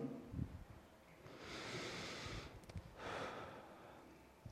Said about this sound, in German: Ja, lass uns erstmal anfangen, irgendwie zu atmen. Ja, versuch irgendwie, versuch mal tief durch die Nase einzuatmen und dann lang durch den Mund auszuatmen.